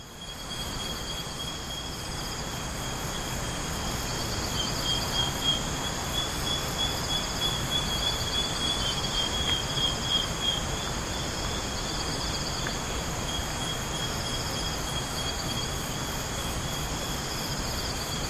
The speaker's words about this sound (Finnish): Tässä on kanssa se sama ilmiö, että, että äänimaisema on täynnä monenlaisia ääniä ja sieltä tulee myös tuo tuollainen taustakohina, joka tulee siitä joesta. Vähän peittää päällä niin kuin muita ääniä omalla kohinallaan.